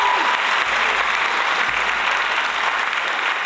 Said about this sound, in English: So, um, in terms of Naomi Osaka, again, just shout out to her. She won her fourth major. So let's give that a round of applause.